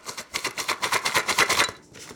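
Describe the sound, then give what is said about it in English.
Dry half-inch chunks of dehydrated turkey rattle inside a jumbo-sized can, shaken in about ten quick, even bursts, fairly loud, then falling quiet at the end. No voices. “Which is how we become the proud owners of a jumbo sized can of dehydrated turkey chunks sounds like Lucky Charms, kind yeah.”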